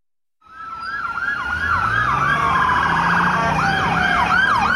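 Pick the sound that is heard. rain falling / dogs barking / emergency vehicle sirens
emergency vehicle sirens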